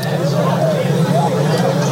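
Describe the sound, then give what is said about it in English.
A large crowd of university fans at a team send-off before a game fills the scene with a dense, steady hubbub of overlapping voices and chatter, fairly loud, with no single speaker standing out. “How does it feel to see this kind of crowd?”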